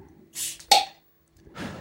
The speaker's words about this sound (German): Äh, also ich habe mein Bier nicht aufgemacht. Na, dann mach das mal. Ja, ich mach das mal. Moment.